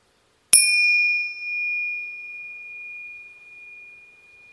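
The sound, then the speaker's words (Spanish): A single strike of small meditation bells rings out with a bright, high metallic tone that hangs and slowly fades over several seconds, with no voices present. “Y cuando escuches el sonido de las campanillas, comienza por llevar o tratar de llevar la atención al abdomen para notar la respiración.”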